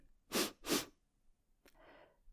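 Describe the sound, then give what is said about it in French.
Two strong, quick sniffs through a blocked nose in close succession, followed by a short faint sniff and a softer breathy snuffle, with no talking. “Et pourquoi je dérangerais le fessier en lui réclamant de se lever, alors qu'il me suffit de renifler?”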